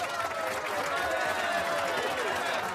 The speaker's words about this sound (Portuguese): Uma salva de palmas, por favor.